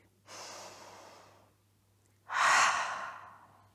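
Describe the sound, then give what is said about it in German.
A slow, deep inhale followed by a longer, stronger exhale during a guided memory exercise, breathy, with no talking; the outbreath is louder and fades gradually like a sigh. “Atmet ihr nochmal tief durch.”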